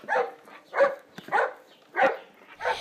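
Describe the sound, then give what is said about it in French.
A dog named Dagobert barks five times in a steady, evenly spaced series, each bark short and fairly loud, with no talking. “Claude a un chien d'Agobert.”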